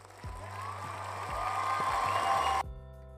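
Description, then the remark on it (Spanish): A burst of applause sound effect, a dense wash of clapping that holds steady for a couple of seconds and then cuts off abruptly, a canned effect played on cue by a host. “Yo soy el de los efectos acá porque me puedo poner el aplauso en cualquier momento.”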